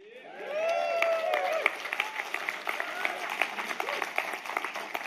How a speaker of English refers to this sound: How many of you know that brings joy? We're on the winning side. And what the winners do, they clap and they cheer. How many of you are winners?